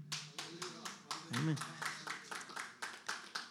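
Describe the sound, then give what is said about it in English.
A small audience gives three hand claps in a steady, rhythmic run of sharp claps at moderate volume, while a voice briefly speaks over them partway through. “Thank you for those three claps.”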